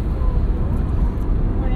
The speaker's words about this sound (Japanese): 富野方公園のコーヒークラブに向かって車を走らせております